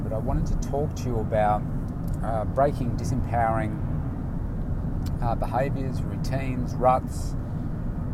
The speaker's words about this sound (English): And today, apologize for the road noise. I'm in the mobile studio today,